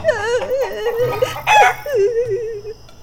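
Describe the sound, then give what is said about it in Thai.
An old rooster crows in a few drawn-out, wavering calls, loud, with a brief harsher burst in the middle and no talking. “มันจะอะไรซะอีกละ่ะก็ฉันแก่แล้วก็เลอะเลือนไปเสียแล้วจำไม่ได้ว่าจะต้องขันเวลาไหนจนทำให้เจ้านายตื่นไม่ตรงเวลา”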